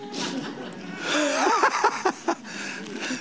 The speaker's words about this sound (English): Glory turn to your neighbour and say, This pastor's blowing his nose because he's got a snivel and it's got nothing to do with a virus.